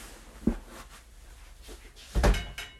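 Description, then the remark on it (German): A door is opened to let a cat in: a soft click and creak around half a second in, then a louder thud-like handling sound near the end, with quiet background noise between. “Wartet, ich muss kurz aufmachen.”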